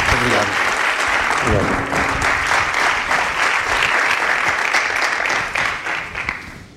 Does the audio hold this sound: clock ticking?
no